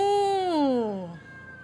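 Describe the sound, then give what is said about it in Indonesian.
A single drawn-out, falling meow sung by a human voice imitating a cat in a children's song about animal sounds, fairly loud, sliding downward in pitch over about a second with a faint tone lingering after. “Ayolah tirukan suara kucing Meong, meong, meong”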